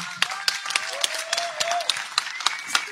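Audience applause welcoming a special guest: a steady patter of many hands clapping at once, with sharper individual claps standing out at irregular moments, dense and continuous throughout without voices on top.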